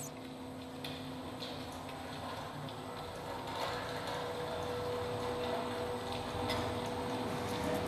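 A mechanical sound installation by Paul Devens: steady whirring machinery with a sustained hum and scattered ticking, clicking parts, moderately loud, growing slightly fuller partway through, with no voices.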